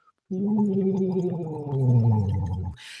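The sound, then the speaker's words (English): A voice hums a sustained, gliding tone through a straw into water in a small glass Dr. Vokes voice-therapy device, producing a steady gurgling bubble for about two and a half seconds, fairly loud, then stops with a brief hiss. “Uh, when you're vocalizing and your voice hits the water, it'll make it bubble and it'll feel like your sound of your voice is coming back up the straw down your throat and massaging”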